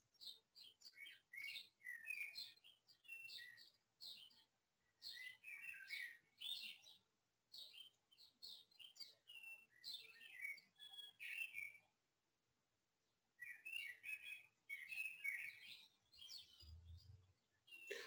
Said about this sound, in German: Hier singen jetzt die Vögelchen.